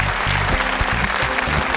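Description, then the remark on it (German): A studio audience applauds steadily, a dense wash of clapping hands that fills the whole stretch at an even, fairly loud level with no voices on top. “Schön, dass Sie dabei sind zu Hause und schön, dass unser Publikum hier so gut gelaunt ist.”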